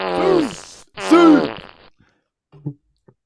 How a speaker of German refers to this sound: der Furz ist nicht von Tobi.